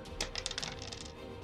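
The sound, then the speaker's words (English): A quick rattle of dice rolled to make an attack in a game, tumbling across a hard surface: a burst of small, sharp clicks over about a second, fairly quiet, with no one talking. “You attack by rolling the dice with willpower.”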